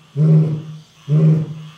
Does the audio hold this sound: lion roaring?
yes